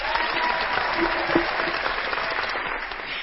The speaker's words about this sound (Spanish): Un aplauso a Ferrari.